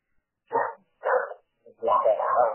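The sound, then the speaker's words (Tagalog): A dog barks three times, two short sharp barks followed by a longer, drawn-out bark, clear against an otherwise quiet background. “Mute muna para hindi mapangasok ang boses ng aso.”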